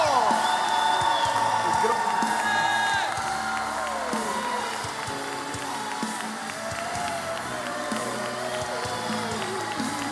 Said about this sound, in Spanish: Vamos a recibirlos con un buen aplauso.